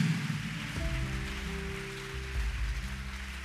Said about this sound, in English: I didn't ask you to clap, so if you are clapping, clap well. Clap well.